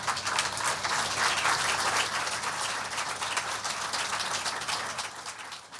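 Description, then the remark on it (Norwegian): An audience applauds steadily, a dense wash of many hands clapping at an even, sustained level with no pauses and no voices, across the whole stretch. “Gi dem en stor applaus, og jeg kan bare si at jeg gleder meg.”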